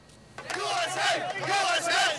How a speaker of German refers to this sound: Jubel auf den Straßen von Dearborn in Michigan. Mitglieder der größten irakischen Exilgemeinde Amerikas feiern den Fall von Bagdad.